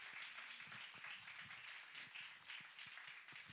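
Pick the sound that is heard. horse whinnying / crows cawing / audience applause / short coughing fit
audience applause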